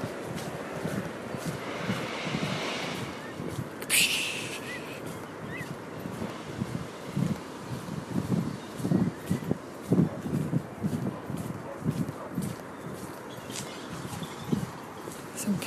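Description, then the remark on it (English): Steady outdoor din from a recycling tip near Saltram with lots of cars around: a broad rumbling wash of machinery and traffic noise, with a sharp clatter near the start and a voice murmuring over it. “Can you hear that the sound in the background? That's the um, it's the tip, recycling tip.”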